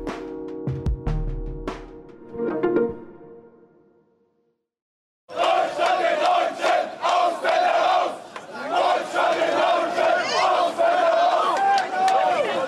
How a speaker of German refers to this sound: Das sind Töne der ausländerfeindlichen Ausschreitungen, die vom 22. bis zum 26. August 1992 im Rostocker Stadtteil Lichtenhagen tobten.